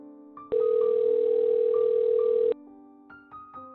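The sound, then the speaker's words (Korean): A telephone ringback tone from an outgoing call to a mother, placed at a bus stop right after getting off a bus: one loud, steady electronic beep lasting about two seconds, with faint tonal background sounds before and after and no one speaking. “그리고 버스 문이 열리자마자 엄마에게 전화를 하였다.”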